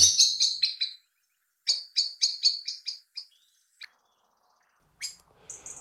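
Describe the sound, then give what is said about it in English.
A blackbird gives loud alarm calls: two rapid runs of sharp, repeated chinking notes, followed by a few isolated chips and a brief high twitter, with quiet gaps between. “I've asked Mr. H to put the alarm call and the beautiful song of Blackbird in this tweet of the season”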